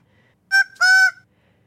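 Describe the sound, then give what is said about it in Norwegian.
A grey go-away bird gives two loud, nasal, drawn-out calls, a short one followed by a longer bleating one, with no other sounds around them. “Det var nemlig en fugl. Det er en grey go-away bird.”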